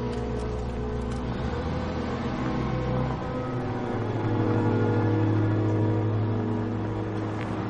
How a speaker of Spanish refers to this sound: De día un coche patrulla circula por una carretera helada. Pasa junto a un bosque de árboles pelados. Para. Da marcha atrás y aparca en un desvío junto a los árboles.